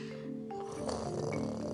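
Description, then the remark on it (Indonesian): A voice imitates a person's loud snoring, a drawn-out rasping, throaty snore like roaring that swells and grows harsher toward the end, with no other talk. “pas aku lagi nonton TV di depan kamu udah otw tidur dengar suara orang ngorok kalau kayak orang ngeraung sih”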